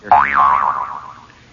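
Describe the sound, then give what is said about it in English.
A single cartoonish boing marking a piece of cabbage popping out of a back molar, its pitch jumping up and wobbling before settling and fading out over about a second, loud with no talking. “and out came that piece of cabbage he'd been working on for three and a half weeks.”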